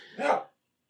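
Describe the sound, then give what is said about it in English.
A single short bark from a pet dog rings out clearly at moderate volume, then cuts off into silence. “Dog's still barking.”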